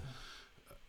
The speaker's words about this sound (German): Nee, das war die Katze, die musste gerade niesen, Alter.